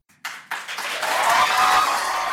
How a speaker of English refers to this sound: A largely unmasked crowd burst into applause after the vote on the proposal from Maplewood Democrat Lisa Clancy.